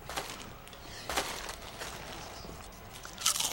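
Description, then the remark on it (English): Loud crunching of Lay's potato chips being eaten while watching playoff games, a series of sharp brittle crackles in irregular bursts with a sharper crunch near the end, no voices. “Do you eat any louder? It's normal to eat loud.”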